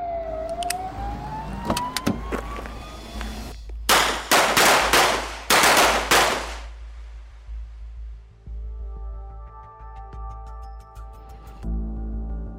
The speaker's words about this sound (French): Très vite, les forces de l'ordre se mettent à les suivre. Les sirènes stridentes l'emportent sur le bruit des moteurs.